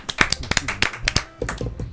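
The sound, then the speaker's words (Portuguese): A short burst of applause from a small group: sharp, irregular hand claps crackling unevenly for about two seconds, moderately loud, with no clear talking over it. “Nosso, Uma salva de palmas.”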